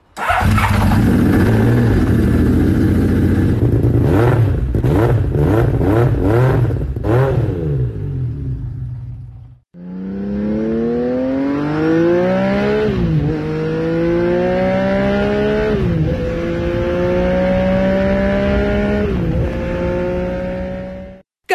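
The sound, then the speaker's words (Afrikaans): The engine of Honda's first six-cylinder production motorcycle idles roughly, blips its throttle several times, then revs hard through rising gear-like sweeps, pitch climbing and dropping in long loud pulls with no talking. “Dis die eerste 6-silinder produksiemotorfiets van Honda.”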